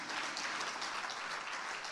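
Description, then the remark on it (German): Steady applause from a crowd welcoming a family onto the stage fills the whole stretch, a dense wash of many hands clapping at once, even in loudness with no voices standing out. “lasst uns sie mit einem ganz, ganz herzlichen Applaus willkommen heißen.”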